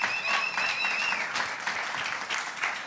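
An audience applauds steadily for about three seconds, a dense crackle of many hands clapping at once, with a thin high whistle riding over it near the start.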